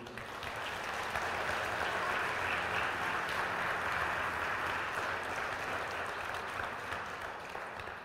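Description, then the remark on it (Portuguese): An audience applauds the Lord during a worship service, a dense wash of many hands clapping at an even, sustained level for several seconds with no voices standing out. “que a gente está aplaudindo?”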